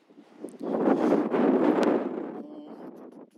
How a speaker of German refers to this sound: ist nur manchmal ein bisschen windig.